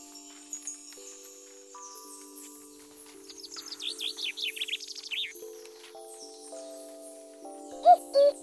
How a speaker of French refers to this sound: Tiens, tu as entendu L'as-tu reconnu Mais oui, c'est un coucou. Si bien souvent on reconnaît son chant, peu de personnes ont déjà vu le timide coucou. Saviez-vous que le coucou n'est pas si petit Il fait plus de 30 cm